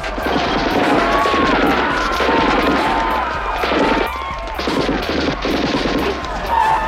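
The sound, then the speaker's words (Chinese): A man skilled in vocal mimicry imitates battle sound effects with his voice: rapid, loud bursts like machine-gun fire over a low, steady rhythmic thumping resembling a helicopter, continuing without a break for several seconds. “关键时刻，口技哥一套声音特效放出，”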